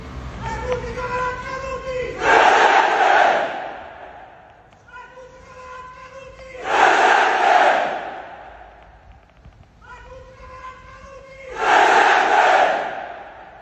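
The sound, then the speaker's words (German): A huge crowd at an evening rally in Rome, standing in rows and raising their arms in salute, chants in unison: three loud rhythmic bursts of massed voices spaced a few seconds apart, each swelling into a roaring shout before dropping back to a murmur. “Stellt euch eine wirklich große Menschenmasse vor.”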